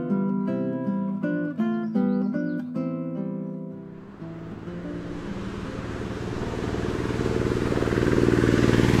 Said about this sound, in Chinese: 这是拖拉机吗？ 真的是拖拉机， 拖拉机你也笑呢？ 很很少见到拖拉机， 是吗？